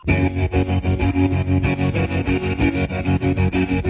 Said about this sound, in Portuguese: Tão marcante quanto esse trêmulo inicial na guitarra é o longo slide